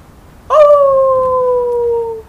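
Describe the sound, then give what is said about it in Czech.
A wolf in the distance lets out one long, steady howl that starts abruptly and glides slowly downward in pitch for almost two seconds before fading. There is no talking, just quiet background. “Někde v dálce zavil vlk.”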